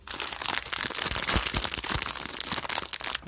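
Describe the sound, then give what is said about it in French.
A plastic bag of Sweet 16 sour candies crinkles continuously for a few seconds, a dense crackly rustle of sharp bright snaps and crunches, fairly loud and steady, with no one talking. “Donc, euh, un petit sac en plastique.”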